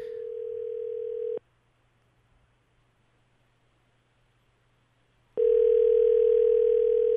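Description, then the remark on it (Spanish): A ringback tone from a call to the INSABI telephone line: a steady electronic ring heard on the caller's end, sounding twice with a long silent gap between, and nobody picking up. No one speaks. “suena y, suena, director.”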